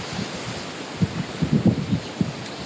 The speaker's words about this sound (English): Can you hear that little sound between the waves? I mean, I think that's so much what it's about, that beautiful, beautiful sound between the waves.